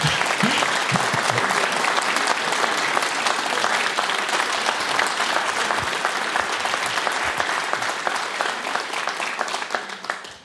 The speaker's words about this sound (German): Applaus für Frieda Wittun.